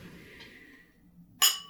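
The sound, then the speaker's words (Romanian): Glasses clink together in a toast, one bright, ringing chime near the end that rises sharply out of a quiet, low background murmur and fades quickly. “Sănătate.”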